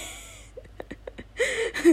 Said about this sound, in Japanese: 開口一番にあくびすなっていう話だけど